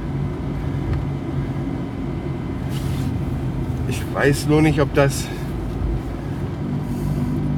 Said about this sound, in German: Mein Auto macht Geräusche, also irgendwie ist fast alles wie immer.